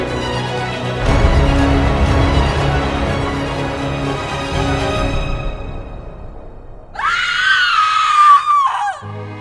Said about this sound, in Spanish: Cuando se apaga la luz de golpe y la habitación se queda completamente a oscuras, lo único que se escucha antes de que todos salgan corriendo es un grito.